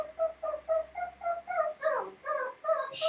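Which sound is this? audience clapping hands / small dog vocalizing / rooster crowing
small dog vocalizing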